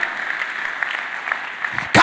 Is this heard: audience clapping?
yes